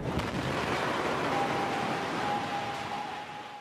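A powerful explosion roars through a building belonging to the Syrian government army, a dense, rumbling wall of noise that holds steady for several seconds before beginning to fade, with no voices present.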